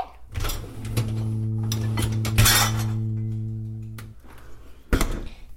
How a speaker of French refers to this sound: Le vaisselle.